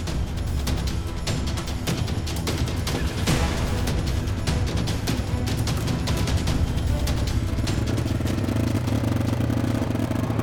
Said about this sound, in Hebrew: מה זה הרעש הזה? זאת לא מכונית וגם לא אופנוע. אה, זה, זה, זה, זה טרקטורון. טרקטורון צהוב הגיח מאי שם, ממש בטיסה אדירה.